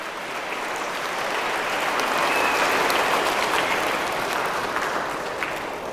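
A steady round of applause from a crowd for a teacher. Many hands clap densely in a continuous wash of sound that swells slightly in the middle and holds fairly loud for about six seconds, with no talking.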